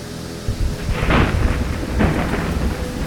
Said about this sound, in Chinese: 呃，这风雨好大哦！